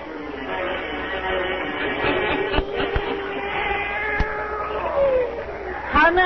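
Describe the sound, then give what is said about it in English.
A black cat named Satan lets out a long, drawn-out meow that wavers up and down in pitch, fairly loud, with a faint murmur of background noise underneath. “old Nancy, witch of Salem, and Satan, her wise black cat.”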